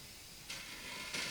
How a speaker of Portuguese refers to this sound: Se, se origina diretamente na estrutura, por exemplo, se eu pegar essa cadeira e arrastar,